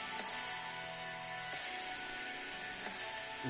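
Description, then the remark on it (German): A mechanical armored gauntlet being put on: a steady whirring, servo-like hum with a few sharp ratcheting clicks spaced through it, fairly loud, with no voices. “wenn ich die meine, meine Panzerhand anziehe, dann Todeswurz.”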